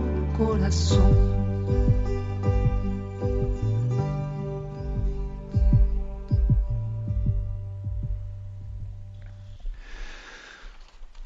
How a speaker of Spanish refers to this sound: Hablando de esos latidos del corazón